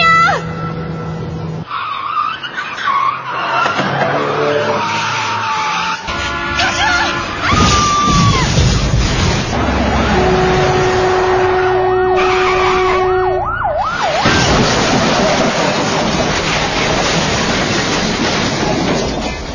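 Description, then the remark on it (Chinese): A loud car crash sound effect: tires skid with a long, steady high squeal, surrounded by repeated bangs and crunching metal that sound like several impacts in a row, with no talking. “听到这个特效，我怎么觉得有点连环撞的感觉啊？”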